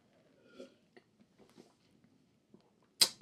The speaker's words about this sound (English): Sip of water.